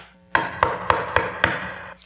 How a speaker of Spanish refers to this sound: Mandó a sus siervos. Me imagino que la mandó con sus caballos. Tocaron la puerta.